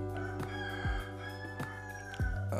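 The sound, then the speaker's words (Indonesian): A rooster crows, its long strained call rising and holding over a steady low hum, with a few sharp knocks breaking in; no one speaks. “aduh berisik nih ayam”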